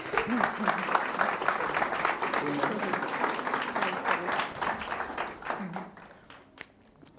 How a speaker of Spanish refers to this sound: La vamos a recibir, por favor, con un fuerte aplauso.